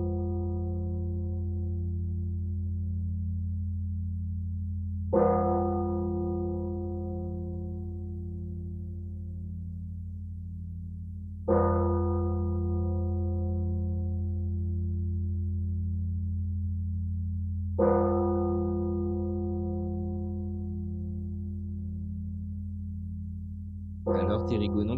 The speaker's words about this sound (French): Alors la, la, cloche qui vient ne fait pas partie des cloches répertoriées par le patrimoine, et pourtant.